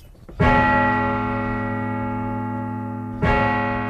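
A large cathedral bell strikes twice, about three seconds apart, each deep toll ringing out loud with a long, shimmering hum that lingers between strikes.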